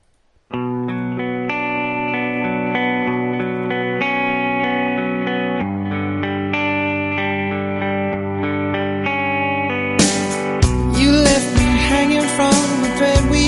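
A pop song plays at steady volume, opening with sustained, effect-laden chords before a fuller beat with drums kicks in near the end. No one speaks over the music.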